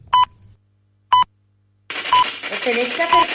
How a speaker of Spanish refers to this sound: a este aparato, la Spirit Box, y aprovechar el ruido blanco que hace y la emisora rotando para que me podáis eh, contestar.